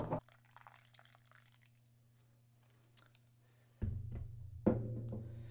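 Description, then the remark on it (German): Tea pours into a cup near the end, a splashy trickle that starts abruptly and swells briefly, after a stretch of low hum with faint small drips and taps. “Bei Bier würde man jetzt sagen, es zischt, aber wir haben hier natürlich es Tee.”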